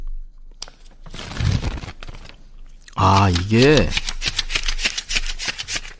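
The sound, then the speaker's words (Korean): Banknotes being counted by hand: a fast, steady run of crisp papery flicks and snaps, fairly loud, with a man briefly speaking over the middle of it. “이게 손으로 돈 세는 소리입니다.”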